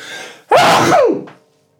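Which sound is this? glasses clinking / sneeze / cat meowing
sneeze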